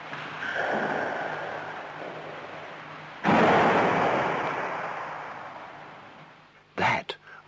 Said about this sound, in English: the sound of the locked door flying open and slamming shut, which she recorded from inside the squash court. She said that this happened three times, despite the fact that the catch was down.